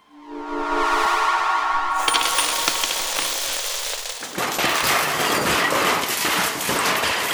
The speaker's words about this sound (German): Was? Oh nein, was haben wir mit meiner Maschine gemacht? Warum fallen so viele Schrauben um?